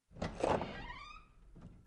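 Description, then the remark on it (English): A front door creaks slowly open as the knob is turned: a latch click followed by a drawn-out, rising creak that fades, ending with a soft thud. No one speaks. “When she reached it, she turned the knob and slowly pulled the door open.”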